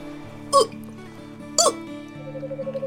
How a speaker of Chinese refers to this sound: 于是啊，小熊喝了一些水，可可还是没能止住打嗝。